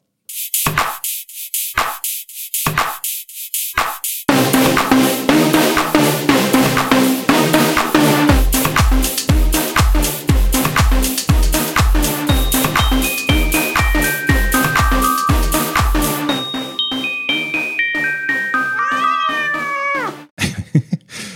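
A loud techno track built from repeated cat meow samples, opening with a few isolated stabs before a steady pounding kick drum and rising synth lines take over, then an abrupt stop.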